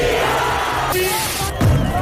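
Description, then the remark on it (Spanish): A large crowd at the San Antolín festival in Palencia, Spain, roars and cheers together, loud, with overlapping shouts and yells of "Viva Palencia" forming a continuous wall of sound for the whole moment. “Ya conocemos las fechas definitivas para que este sonido se repita en la capital palentina. Y ahora gritad conmigo, ¡Viva Palencia!”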